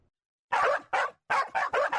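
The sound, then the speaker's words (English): A dog barks five times in quick succession, loud, with a brief pause after the second bark and no other sounds around it. “You love your dog.”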